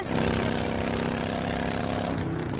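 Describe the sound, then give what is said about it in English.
A loud, steady motorcycle engine roars, its deep rumbling drone holding constant throughout with no voices or pauses. “And this is how that same commercial sounds on your motorcycle.”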